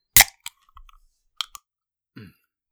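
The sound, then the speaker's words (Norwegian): A Red Bull drink can is cracked open with a sharp, loud snap, followed by a few small metallic clicks and taps, then a brief low rattle at the end. “det, var, det var en Red Bull på boks.”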